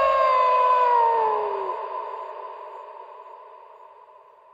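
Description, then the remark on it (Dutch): A long, drawn-out wolf howl, a clear tonal wail that slides slightly downward and then holds steady, fading gradually over several seconds with no other sounds or voices. “Wolfshuilen - een hoorspel voor Festival Hongerige Wolf”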